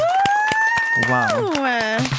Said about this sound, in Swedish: Inspirational speech. Um, en applåd här i studion. Wow!